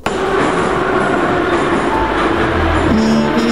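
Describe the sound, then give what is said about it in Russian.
A metro train at its terminal station rumbles loudly and steadily, its electric motor whining in sustained tones that shift pitch near the end. No voices are heard. “Станция конечная. Поезд дальше не идет. Просьба освободить вагоны.”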